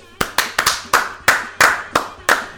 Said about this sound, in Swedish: Vi kan väl bara ge dem en stor applåd.